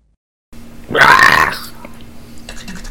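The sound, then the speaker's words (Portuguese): A voice imitates a monster attack with one short, loud, guttural roar that breaks off quickly, leaving a faint steady hum and some quiet rustling afterward. “Um ataque de monstro. Ponto MP3.”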